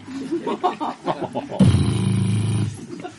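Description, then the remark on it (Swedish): Someone talks briefly, then makes a loud, buzzy, sputtering sound with their mouth for about a second, imitating air rushing out of a deflating balloon. “Har ni sett förresten luften gå ur en ballong?”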